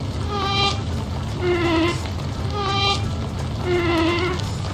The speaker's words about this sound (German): Tja, Bienen summen nicht nur, sie hupen tatsächlich auch noch. Das klingt dann zwar ähnlich wie das Summen, ist aber viel kürzer und eher so ein kleiner Bip-Bip-Ton. Und das klingt dann so.